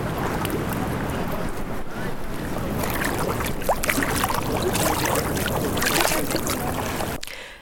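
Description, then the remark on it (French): A flowing river rushes steadily, with sloshing and splashing of people wading across the current on foot and a rough buffet of wind on the microphone; no one speaks. “on en est où de la traversée Une dame vient de glisser dans l'eau”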